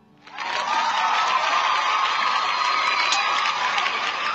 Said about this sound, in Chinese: 首先呢，老弟，给你点掌声啊！你做到了一个父亲应该做到的。